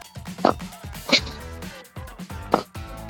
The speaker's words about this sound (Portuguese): Vocês ouviram o barulho que essa cachorra fez? Que isso?